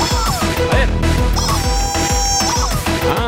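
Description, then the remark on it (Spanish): A loud burst of rapid chicken clucking from the show character Pollito, a string of quick squawky clucks repeated for a few seconds over a dense, busy background, with no talking. “¿Cómo estás, Pollito? ¿Estás bien el día de hoy? ¿Con ganas de aprender, Pollito?”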